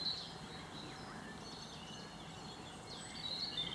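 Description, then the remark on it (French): Great tits sing in thin, high-pitched notes, heard near the start and again near the end, over a steady outdoor rumble. Other faint bird calls come through in the background. “On a les mésanges euh, charbonnières qu'on entend.”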